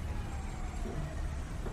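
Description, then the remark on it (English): A steady, low engine and road rumble from a car moving slowly through Los Angeles city traffic, with a constant broad hiss and no talking. “I mean, I don't know if you've seen LA traffic before, but uh, we're, well, uh, now, but you probably walk faster than we're driving right yeah.”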